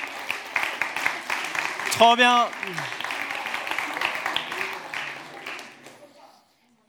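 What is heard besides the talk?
audience applause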